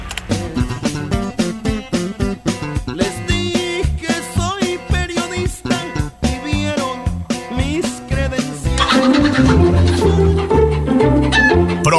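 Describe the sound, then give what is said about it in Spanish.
A loud, punchy radio station jingle with sharp rhythmic hits and a rooster crowing through it, swelling into a sustained, brassy finish. “Seguimos con el gallo de la radio.”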